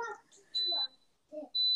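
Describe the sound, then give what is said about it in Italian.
Two high, steady electronic beeps from a dishwasher alert, about a second apart and fairly loud, with brief bits of voices and soft background sounds between them. “Eh, la lavastoviglie. La lavastoviglie.”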